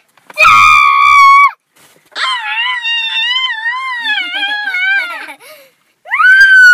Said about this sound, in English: Hey, hey. No screaming, okay?